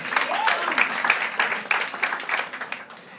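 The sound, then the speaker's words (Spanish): An audience applauding a man who translated the Bible for the Mije people: a dense, steady patter of many hands clapping at once that keeps an even loudness for about three seconds, with faint crowd murmur mixed in. “Pero aplaudan bien.”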